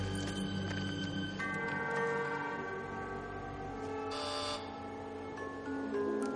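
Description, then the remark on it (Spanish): A doorbell is pressed by Charlie at a lone house on a snowy hill, far from the town. It rings with a steady, buzzy multi-toned chime that shifts pitch a couple of times, plus a brief brighter jangle partway through. Moderately loud, with no one speaking. “Charlie pulsa el timbre y Wilbur abre la puerta.”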